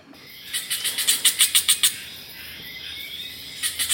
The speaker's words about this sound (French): Et là, ce concert de maracas rond, la symphonie tropicale, il s'agit d'une sauterelle feuille.